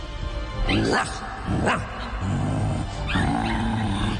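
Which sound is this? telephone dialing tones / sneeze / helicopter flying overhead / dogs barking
dogs barking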